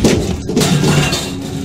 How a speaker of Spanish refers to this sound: Poco antes de salir, escuché varias cajas caerse